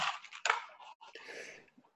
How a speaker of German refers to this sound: Ich bin ein bisschen erkältet, ich hoffe, man hört es nicht allzu deutlich. Machen wir die Nase putzen.